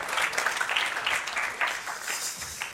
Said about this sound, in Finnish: Joten annetaan aplodit tälle nuorelle miehelle, joka on ollut ajossa.